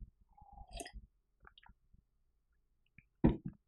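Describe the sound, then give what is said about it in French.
Someone takes a sip of a drink: soft mouth clicks and slurping, a brief pitched squeak, then a quiet pause and a louder gulp or swallow with a small smack, with no talking. “Messieurs et mesdames les entrepreneurs et les étudiants, je prends une gorgée.”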